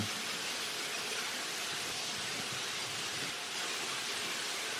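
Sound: heavy rain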